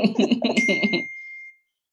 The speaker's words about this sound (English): Is that nine? Yes. Sorry. At least put it on vibrate. Oh, well, I have now. I didn't realize.